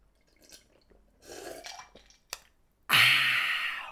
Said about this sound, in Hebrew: אני דופק פה צ'ייסר סודה ואני איתכם.